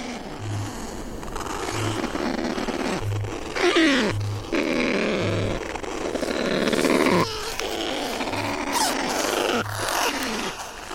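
A kakapo parrot, an endangered bird species, calls: deep, regular booming pulses about once a second, overlaid with harsh, rasping grunts and groaning squawks that swell and fade, with no one speaking.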